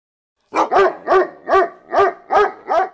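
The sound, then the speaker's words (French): A domestic dog barks seven times in a steady, rapid rhythm, each bark loud and sharp, after a brief moment of silence at the start. “Intéressons-nous à notre plus fidèle compagnon, j'ai nommé le chien domestique.”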